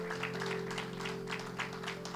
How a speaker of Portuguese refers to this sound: Vamos aplaudir o nosso Senhor Jesus Cristo, meus irmãos?